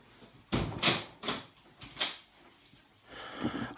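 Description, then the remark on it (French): A door is handled and opened, with a series of sharp clunks and rattles from the latch and frame spread over a few seconds, then a softer scraping shuffle. “Vas-y, nous, ouvre la porte, vite fait, vas-y.”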